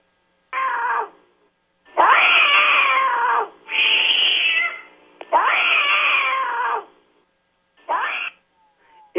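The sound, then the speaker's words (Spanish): A cat lets out a series of long, drawn-out aggressive warning yowls, loud, with short pauses between them and a brief final cry. No one speaks. “Eh, este que les vamos a mostrar ahorita es ya de una agresividad.”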